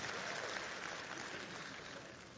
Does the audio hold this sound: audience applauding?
yes